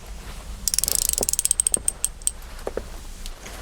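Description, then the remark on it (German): A door's combination lock dial clicks rapidly in a ratcheting run as the code 4-7-6-5-1-8 is entered, slows to a few scattered clicks, then gives two last taps, but the door does not open; crisp, with no voices. “Ich bin ganz sicher, dass du die Zahlen richtig eingestellt hast, ja. aber die Tür geht nicht auf.”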